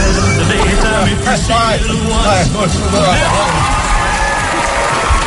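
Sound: stadium crowd applauding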